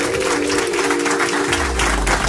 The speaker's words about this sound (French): que vous applaudissez à tous. Voilà, voilà.